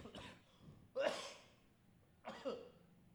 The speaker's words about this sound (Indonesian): Nih salah satu efek cuaca nih batuk gue.